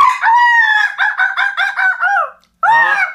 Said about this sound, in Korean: 저 닭은 왜 잠이 없냐 그지 아. 아 진짜 저놈 시키 아, 아 그리고 닭 소리에 이어 들려오는 목사님의 목소리 닭 조용히 하자